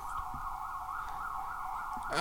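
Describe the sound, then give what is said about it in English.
An ambulance siren sounds outside an apartment window as the ambulance goes through an intersection: a steady, piercing tone held without a break for a couple of seconds over low traffic rumble, fairly loud, with no one speaking. “Oh my god, that's an ambulance, dude.”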